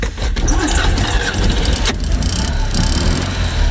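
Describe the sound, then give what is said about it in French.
The small 602 cc, 25 hp twin-cylinder engine of an old 2CV car cranks and catches, settling into a loud, steady, slightly rattling idle, with a brief squeal near the start and no voices. “Ah, on reconnaît le bruit de la, la 2 chevaux. On reconnaît le bruit du bicylindre là qui est en version 602 cm3 et 25 chevaux Allez, on est reparti.”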